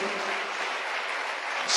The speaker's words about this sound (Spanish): Dele un aplauso de alabanza al Señor en esta hermosa noche.